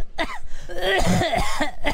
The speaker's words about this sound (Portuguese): Não é justo eu ter que ficar aguentando você tossindo na minha orelha